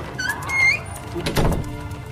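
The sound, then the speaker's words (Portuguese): A door creaks with a rising, squeaky hinge sound, then shuts with a single solid thud as someone leaves through the only door of the room, followed by a quiet room tone. “E saiu pela única porta do recinto, deixando um silêncio incômodo pelo local.”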